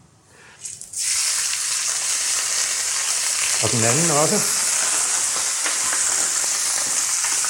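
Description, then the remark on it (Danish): Unwrapped meat, a lamb rump, hits a hot frying pan to be seared to a crust and starts a loud, steady sizzle that crackles on without pause, with a brief spoken remark partway through. “Så det, vi mangler nu for kødet, ikke for grøntsager, men for kødet, det er at pakke kødet ud, og, og så spise det på panden, så den så får den her skorpe, som vi godt kan lide.”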